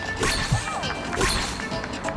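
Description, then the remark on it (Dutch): Two sharp, synthetic punch impacts from a boxing video game land about a second apart, each a loud thwack with a brief swishing tail, over a steady electronic game backdrop. “Oh, wacht Ja, nu moet jij weer een klap incasseren.”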